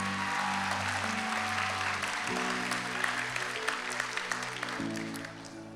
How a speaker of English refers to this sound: Can you give Cody and Stacy a round of applause? Aren't they just something special?